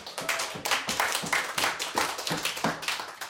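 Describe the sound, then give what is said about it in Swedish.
During a radio broadcast, a small group claps in a steady run of sharp, overlapping hand claps with a fairly quick rhythm, moderately loud and with no voices over it, as a greeting to Emma Lundenmark, an absent colleague who is unwell. “Kan vi ge en applåd genom etern?”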